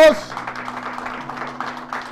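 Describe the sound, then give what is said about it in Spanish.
An audience claps together in praise of the Lord, a dense, steady patter of many hands running throughout over a constant low electrical hum. “Denle palmas al Señor, alaben a Dios.”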